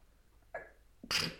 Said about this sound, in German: Jetzt niese ich nochmal.